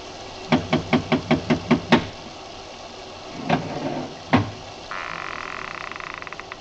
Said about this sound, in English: I lifted the bronze idol and rapped on the door with it, and the voices stopped.